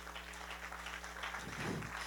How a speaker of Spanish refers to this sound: Dele un aplauso al Rey.